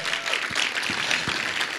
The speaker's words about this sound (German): dem könnt ihr schon mal einen Applaus geben, der kommt gleich nach vorne.